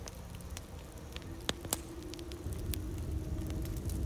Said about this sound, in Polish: Przy ognisku zapadła cisza. Słychać było jedynie trzaskające w płomieniach suche gałązki.